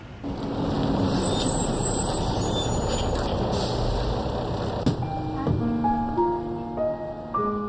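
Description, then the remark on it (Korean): A large bus idles with a heavy, steady engine rumble and a broad air-brake hiss, then a series of stepped whining tones rises as it pulls up and settles. No one speaks. “어, 저기 버스 왔다.”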